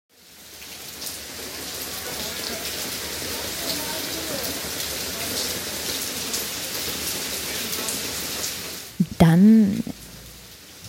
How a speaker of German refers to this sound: Und es kommt dann wirklich in Bächen und es gießt richtig runter